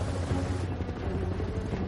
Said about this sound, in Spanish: El helicóptero sobrevuela un mar embravecido.